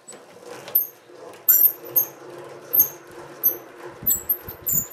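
An old, self-built hand-cranked honey extractor at the Zeidel museum in Feucht turning with repeated high-pitched squeaks at an uneven rhythm, over a low rumbling mechanical drone with occasional clunks.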